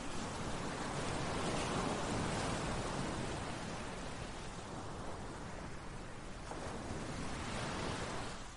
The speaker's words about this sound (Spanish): Wow, ¿puedes oír las olas del mar? Bueno, esto es maravilloso.